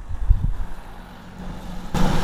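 Low, rumbling road traffic with a heavy truck passing, its engine drone swelling into a louder, broader roar toward the end. No one speaks.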